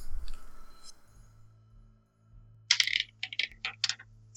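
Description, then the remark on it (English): Dice for a perception check in a tabletop role-playing game clatter and tumble across a hard tabletop in a quick burst of sharp clicks, fairly loud, ending in a few scattered rattles, with a low steady hum underneath. “Roll me perception.”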